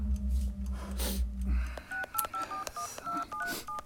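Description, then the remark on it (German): A telephone number is keyed in with a quick run of short touch-tone beeps, about a dozen in an uneven rhythm, following a low rumbling hum at the start, as a call is placed to colleagues in Waldeck. “Rufen Sie die Kollegen in Waldeck an. Geht keiner ran?”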